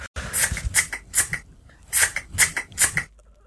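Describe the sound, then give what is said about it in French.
A person imitates cutting something with their mouth, making quick, crisp snipping sounds: two steady runs of about four snips each, with a short pause between them and no talking. “Non, c'est coupé. OK, c'est coupé. Couper quelque chose, OK?”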